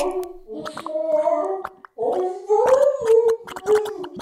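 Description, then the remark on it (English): A voice makes a wobbling, bubbly gargling noise, imitating someone sinking into brown sauce, in two close bursts with a brief pause between them. “We can hear one submerging as we speak.”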